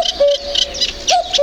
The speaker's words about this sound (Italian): Se non abitate proprio in città, città, città, vi sarà capitato intorno a marzo, aprile sentire il verso del cuculo che fa più o meno così.